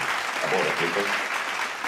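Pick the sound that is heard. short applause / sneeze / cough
short applause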